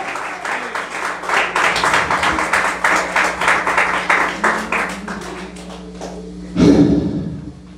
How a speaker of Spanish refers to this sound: Te ofrenda de palmas al Señor.